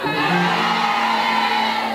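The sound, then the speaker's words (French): A crowd of voices at a worship gathering shouts together in one loud, sustained healing cry after a count to three, steady and full for about two seconds, with no clear words, just a massed collective yell. “C'est pas amusement. C'est un cri de guérison.”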